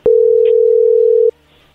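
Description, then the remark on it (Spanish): An incoming telephone call tone sounds once as a single steady, low-pitched beep lasting just over a second, loud and unbroken, then cuts off into near silence. No one speaks. “A ver, ahí entró la llamada, no haga ruido.”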